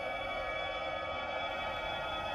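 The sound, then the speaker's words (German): The Canto warning sound of a Leaf electric car: a synthetic, dense humming drone with several layered pitches, a short sample looping continuously at an even level, heard alone with no voices. The loop plays faster and rises in pitch as the car's speed increases. “Der Canto-Sound besteht aus einem kurzen Sample in einem unendlichen Loop, der mit steigender Geschwindigkeit immer schneller wird.”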